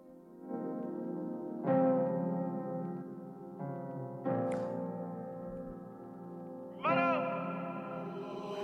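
A rap song intro of sustained, echo-drenched synth chords, each new swell entering on top of the last at a slow pace, moderately loud with no vocals or drums yet.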